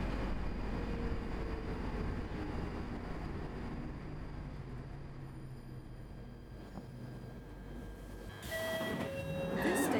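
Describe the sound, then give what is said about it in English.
A Northern Line train passing through a short tunnel rumbles steadily, its low roar easing slightly before high, whining brake squeals and a swelling rush of noise near the end as it slows to a halt at Highgate, a two-level station. “Now, as we come into Highgate, the ground has risen steeply around us, and we go through a short tunnel before the train comes to a halt at this two level station.”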